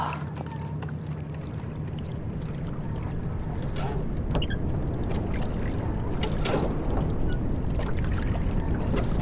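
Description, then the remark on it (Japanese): Fuel pours steadily into a racing boat during a pre-race boat check, a continuous rushing, gurgling liquid noise that holds at an even, fairly loud level throughout with occasional small clunks and no voices. “さあボートチェック燃料を補給してと”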